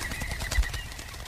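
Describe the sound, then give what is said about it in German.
A pigeon's wings flap rapidly as it takes off, a quick run of soft, rhythmic fluttering bursts, with no voices present. “Die Taube flog los. Sie schlug kräftig mit den Flügeln und entfernte sich von der ihr nachschauenden Prinzessin.”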